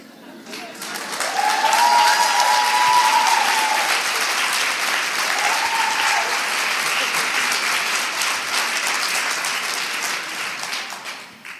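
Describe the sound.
A large audience claps steadily for about ten seconds, a dense, sustained burst of applause that swells quickly and holds before slowly tapering off, with faint voices or a whistle mixed in.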